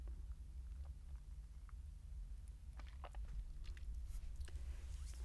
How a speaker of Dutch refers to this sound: Maar even een slokje van mijn koffie.